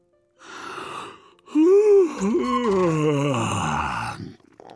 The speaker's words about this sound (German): Schlapp streckt er die schlaffen Muskeln und gähnt so laut wie ein Elefant.